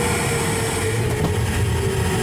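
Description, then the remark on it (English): A pneumatic tube system's vacuum is switched on and runs with a steady, loud whooshing roar and low mechanical hum, holding an even level throughout with no voices. “So we turn on the vacuum there,”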